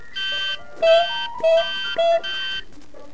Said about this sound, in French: L'horrible son de mon réveil sonna.